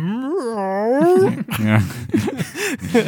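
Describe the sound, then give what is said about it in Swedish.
A voice imitates the deep, ringing chime of a large cat bell being activated: one long sustained tone with a wavering pitch, followed by several shorter voiced swoops. The voice is fairly loud. “Först så är det så här som en gong, gong. Ksh men sen så mm.”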